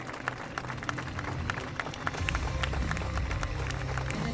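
An audience applauds steadily for a team marking 20 years, a dense patter of many hands clapping at once, swelling slightly louder halfway through with a low crowd murmur underneath.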